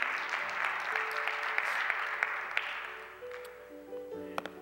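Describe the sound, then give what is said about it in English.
An audience claps together as a hand clap of praise to God, a dense, steady wash of applause that gradually thins and fades, while sustained organ-like tones hold underneath and a few sharp claps stand out near the end. “Come on, give God a hand clap of praise one more time.”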